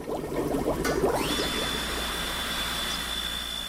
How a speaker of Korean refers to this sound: 이 보글거리는 물소리와 기계음은 물고기들을 위해서 꼭 필요한 소리입니다. 아, 물고기 그 숨쉬게 할 수 있게끔 불로아라는 그 공기 주입 펌프를 돌리는 소리 때문에 항상 이런 소리가 많이 나고 또 조금 시끄럽게 들릴 수는 있지만 뭐 제 귀에는 그렇게 거슬리진 않는데